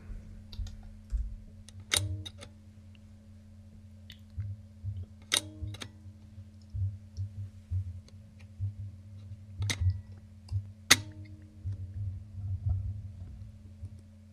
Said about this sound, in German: Kommt von einer Aqua-Lochkamera für 120er Rollfilme.